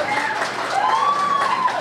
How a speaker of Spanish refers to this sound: Pues sí. Nunca te había aplaudido tanta gente, güey, ni tu mamá, güey.